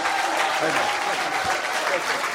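The Arena Church audience stands and gives Michael Murphy a round of applause, a dense, steady wash of many hands clapping at once, loud and sustained for the whole moment without a break.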